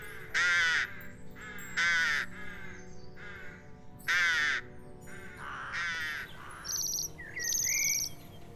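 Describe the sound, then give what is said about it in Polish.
Rooks give harsh, raspy caws, about four or five spaced a second or two apart. Thin high chirps from smaller birds join near the end over a low outdoor hum. “Nasze gawrony lecą gdzieś na południe, blisko, powiedzmy do Czech albo na zachód do Niemiec czy Francji, a do nas przelatują gawrony z terenu Rosji czy krajów y, bałtyckich.”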